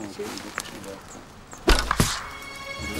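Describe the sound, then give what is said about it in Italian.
A sharp thunk of an arrow hitting a target in a penetration test through clothing and anatomy, followed by a second quick impact, with a soft murmur of background voices around it. “Il trucco è trovare la giusta combinazione di distanza e abbigliamento e anatomia che faccia penetrare la freccia per 3 cm.”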